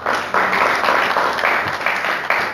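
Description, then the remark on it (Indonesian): An audience breaks into steady applause for God, a dense wash of many hands clapping together, holding its level for a few seconds without anyone speaking over it. “Tepuk tangan dong buat Tuhan”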